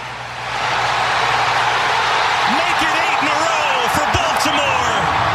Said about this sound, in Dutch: Ja, ik pak hem er toch even bij hoe dat klonk in dat stadion van, van Baltimore. Toen Justin Tucker aanlegde.